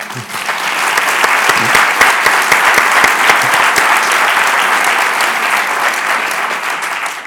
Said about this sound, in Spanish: Este aplauso es para ti.